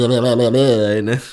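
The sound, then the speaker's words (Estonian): A voice does a loud motorboating imitation, a buzzing, flapping raspberry made with the lips that lasts just over a second before trailing off, with no other talking. It mimics the sound of breasts motorboating someone. “see on see hääl, mis juhtub siis, kui rinnad motorboard ivad sind”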